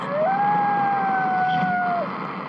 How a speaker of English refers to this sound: Tonight's all cold here. And the coyotes is hungry. There'll be nothing left of me. Can you hear them?